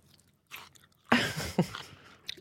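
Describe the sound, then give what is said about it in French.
A crisp radish being bitten and crunched right against the microphone, a sharp loud crunch followed by a few quieter chewing crunches, with no talking. “Il y a deux deux crocs différents. allez Ah non, il y en a même trois. Ok. Il y a le radis”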